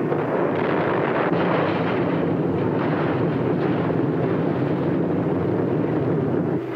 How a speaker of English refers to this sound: With this earth-shattering overture, played by Stuka bombers, World War II began.